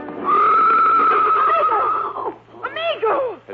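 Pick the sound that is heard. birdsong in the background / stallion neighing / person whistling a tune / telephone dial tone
stallion neighing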